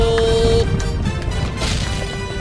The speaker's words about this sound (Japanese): 花火花火が上がった